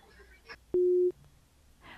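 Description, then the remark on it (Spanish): A telephone busy tone after a dropped call sounds once as a loud, steady mid-pitched beep lasting about a third of a second, with faint bits of speech just before and after it. “Bueno, se cortó la comunicación.”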